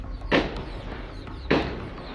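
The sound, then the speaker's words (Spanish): Two distant gunshots crack out about a second apart in the community of El Durazno, Coyuca de Catalán, Guerrero, each a short sharp bang with a brief echoing tail, over a steady low background rumble. No one speaks. “A lo lejos se escuchan varios disparos.”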